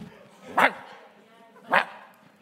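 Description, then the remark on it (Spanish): The pastor's dog barks twice, two sharp, fairly loud barks about a second apart, over a low, steady background murmur. “Ese está ladrando.”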